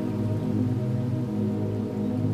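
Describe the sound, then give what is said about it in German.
Steady, dense rainfall pours down on a lake in a continuous wash of heavy drops, drumming evenly onto the water surface under dark storm clouds, with no pauses or voices. “Erst wenige, dann immer mehr, bis ein Strom von dicken Tropfen unablässig auf den See trommelt.”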